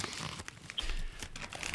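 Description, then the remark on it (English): A plastic packet is torn open and crinkled live on air, giving a run of sharp, irregular crackles and rustles that continue steadily for under two seconds, with no talking. “You can open the packet.”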